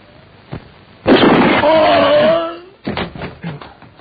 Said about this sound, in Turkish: Sen ne yaptın? Üçe kadar saydım sonra ateş ettim. Nasıl? İşte böyle.